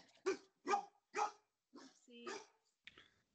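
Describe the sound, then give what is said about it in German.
A two-year-old pet dog barks about five or six times in a steady, spaced rhythm, moderately loud, with the last couple of barks softer and more clipped. “Das ist, da, das ist dein Hund, nehme ich an.”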